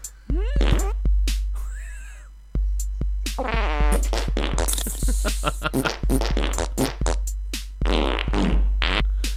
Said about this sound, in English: I, I had to get to the fart remix.